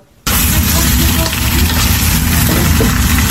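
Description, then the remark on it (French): A loud, steady crackling sizzle of potatoes browning in a frying pan in a kitchen starts abruptly after a brief quiet moment and continues without letup, dense. “Les pommes de terre rissolent en cuisine”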